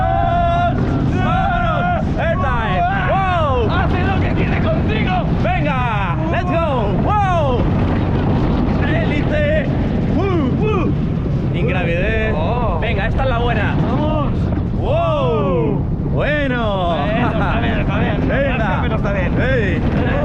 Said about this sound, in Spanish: Esto ha sido Jubelen. Qué montaña rusa más contundente.